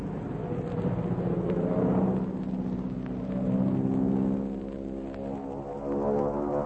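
A loud, droning propeller-engine roar of a Mosquito aircraft with a steady harmonic hum, swelling and shifting in pitch as it goes into a steep dive, over a low rumbling background, with no voices.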